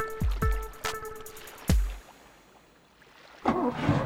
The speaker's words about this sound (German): flott den Motor vom Boot wieder anlässt